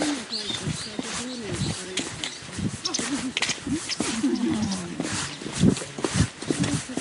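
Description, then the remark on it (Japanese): Footsteps of people walking past outdoors, recorded on an iPhone held in hand while walking: soft irregular steps mixed with murmuring voices of passersby talking and some faint background ambience. “例によって人が歩いてくると急にだんまりだまります。”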